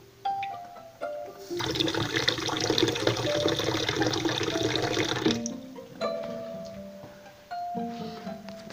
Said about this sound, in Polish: Jeżeli, jeżeli chcesz napełnić szklankę do, do, do pełna, do krawędzi, nie możesz używać pełnego strumienia wody. Ponieważ e, strumień jest tak e, mocny, że woda wylatuje i nigdy nie osiągnie e, krawędzi szklanki.